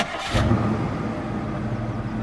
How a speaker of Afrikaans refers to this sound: Petronella skakel die kar aan.